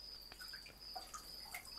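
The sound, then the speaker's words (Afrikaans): Faint, scattered water drips plink at irregular intervals as a mother bathes a baby, each a small bright blip at a slightly different pitch, heard quietly with no one talking over them. “Water druppels, water druppels was vir baba skoen.”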